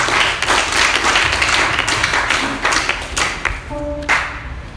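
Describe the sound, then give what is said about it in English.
An audience claps steadily together for a speaker invited to give the pastoral testimony, a dense, loud patter of many hands sustained throughout, with a brief tonal hum rising near the end before the applause swells again. “Let's clap for Let's clap for”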